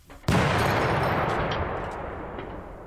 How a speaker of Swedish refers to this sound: Hörde ni smällen? En av väggarna föll ner. Det ryker därifrån. Går knappt att se något. Hur mycket av kyrkan är borta?